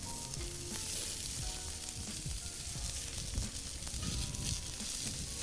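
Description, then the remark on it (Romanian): Sausages from Gherla sizzle steadily as they fry in a hot pan, a dense continuous crackle and hiss with occasional louder pops and scraping, fairly loud, with no voices. “Cred că am prăjit cam puțin.”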